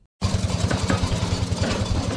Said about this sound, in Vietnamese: Đây là tiếng động từ hàng chục chiếc xe tải chở vật liệu đá xi măng trên con đường dẫn vào xã Thanh Nghị, huyện Thanh Liêm, tỉnh Hà Nam – cùng với việc nghiền đá của các mỏ khai thác đá đã tạo ra khung cảnh hỗn loạn tại khu vực xã Thanh Nghị.